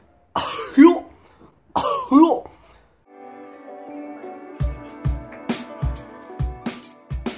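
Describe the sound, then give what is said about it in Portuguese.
A person does two exaggerated, raspy, loud coughs, imitating the cartoon character Goofy (Pateta). A short pause follows, then music with steady rhythmic thumps begins. “O primeiro passo é aprender a tosse dele. Bom, aprender a tossir, né? Que é mais ou menos assim.”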